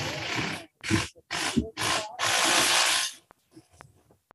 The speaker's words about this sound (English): there goes again the drill.